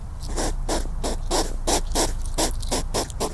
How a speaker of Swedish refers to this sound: Nej, det är en igelkott. Så låter en igelkott.